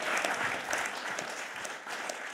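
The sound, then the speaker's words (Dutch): Sustained applause from an audience, a dense wash of many hands clapping at steady volume throughout, with no voices standing out. “Dames en heren, warm applaus.”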